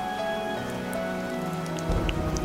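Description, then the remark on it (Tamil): Steady rain patters on a hard surface with scattered distinct drops, a faint sustained tonal hum underneath, and the downpour swells slightly louder near the end. “so இந்த குழந்தைத்தனத்தையும் பற்றி அந்த மழை இவ்வளோ அழகாக நமக்கு சொல்லித்தருது இல்லைங்களா”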